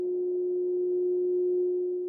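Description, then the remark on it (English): A steady, pure electronic-sounding hum from a small, all-gold 1960s Art Deco men's tuning fork watch, one unbroken tone holding evenly for a couple of seconds with faint surrounding noise and no voices. “Uh, where they differ is uh, they hum instead of tick.”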